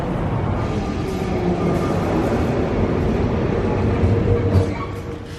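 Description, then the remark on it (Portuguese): A commuter train bound for Cais do Sodré rumbles steadily along the rails, a dense low roar with faint rattling and hiss, loud throughout before easing slightly at the end. “depois apanho o comboio até ao Cais de Sodré”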